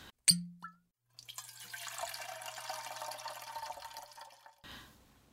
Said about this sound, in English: But before we do, we should probably pour one out.